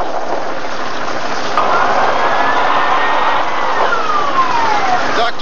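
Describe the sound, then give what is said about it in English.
A hovercraft engine whines faintly through the heavy, steady hiss of rain, its thin tone rising and then sliding downward in pitch, with no voices. “That's one of our hovercraft, but I don't recognize the pilot.”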